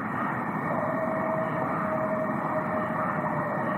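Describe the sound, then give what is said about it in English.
A faint howl, called the booger howl, in an outdoor field recording: one long, thin, steady wail that drifts slightly downward, nearly buried under constant hissing background noise. “there are even audio recordings of howls that sound similar to coyotes or wolves”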